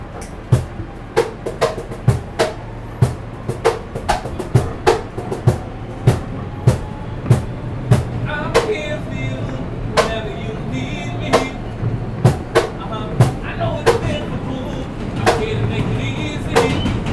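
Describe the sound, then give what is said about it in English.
A New York subway train rumbles along the rails, its wheels clacking over track joints in a steady, repeating rhythm of sharp clicks above a constant low roar, heard from inside the moving car. “Daarnaast begon hij dus nu, vijf jaar geleden, met het optreden in de metro's van New York, waarbij hij zijn eigen geschreven poëzie en liedjes performt.”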